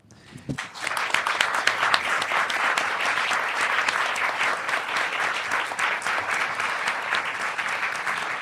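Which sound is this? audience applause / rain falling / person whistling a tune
audience applause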